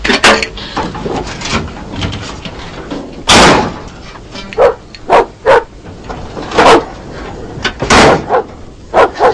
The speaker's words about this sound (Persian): جلو این سگتو بگیر